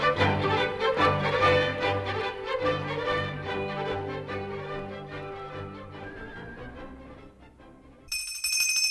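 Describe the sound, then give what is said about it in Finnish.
A small bell rung to summon servants rings rapidly and continuously, a bright, insistent jangle with no voices, ending in an abrupt switch to a brief higher-pitched ringing tone. “Tietäkää se, että kun kello kilisee, teidän pitää olla kuin rasvattu salama eessäni.”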